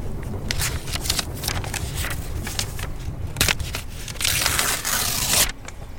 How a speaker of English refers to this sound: I'm ripping this out of my notebook.